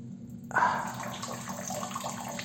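A steady liquid stream starts abruptly and splashes continuously into water, a bright trickling pour of a person urinating into a toilet bowl and raising bubbles, with no talking.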